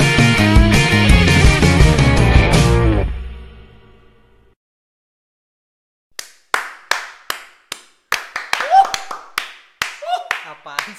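Music fades out into a short silence, then a burst of irregular, sharp hand claps begins, about a dozen quick smacks with a couple of brief vocal sounds mixed in.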